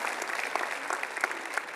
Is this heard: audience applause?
yes